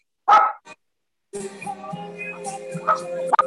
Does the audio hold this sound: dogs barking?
yes